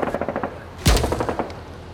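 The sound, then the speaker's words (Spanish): Rapid machine-gun bursts from a ship and from a diving aeroplane at 430 miles per hour rattle in a fast, steady rhythm, punctuated by a heavy booming blast of anti-aircraft fire midway, with sharp repeated cracks continuing afterward. “El avión tiembla como un potro nervioso, mientras que las balas de las ametralladoras del barco y las del avión se encuentran en el espacio.”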